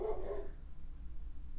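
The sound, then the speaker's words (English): A single short bark from a female pet dog in the background at the start, somewhat distant and muffled, followed by a low steady room hum with no talking. “I don't know if you can hear my dog barking in the back.”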